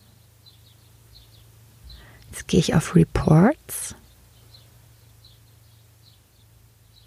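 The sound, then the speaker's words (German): Faint, high bird chirps repeat steadily through the whole clip, coming in through an opened car window, while a person speaks briefly over a low background hum. “Höre ich Vögel bei dir?”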